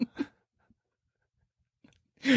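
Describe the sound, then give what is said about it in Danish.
Loud smacking chewing noises: a couple of wet mouth smacks at the start, a few faint clicks in a near-silent gap, then a louder burst of smacking at the end. “Træer i virkelig, de er bare virkelig sarte over for smaskelyde.”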